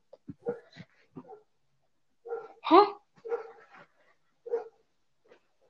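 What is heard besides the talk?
dog barking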